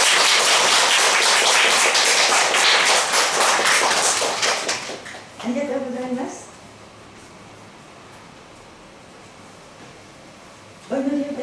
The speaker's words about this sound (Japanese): また集ってくださったお一人お一人を歓迎してそして何より皆様をここに招いてくださった神様に感謝をして盛大な拍手で始めましょう。